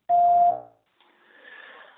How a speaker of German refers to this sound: Wir freuen uns über alles, was ihr uns nach dem Piepton hinterlasst.